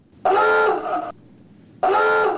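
An alarm sound effect blares in two long, harsh buzzing bursts separated by a brief pause, loud, with no talking.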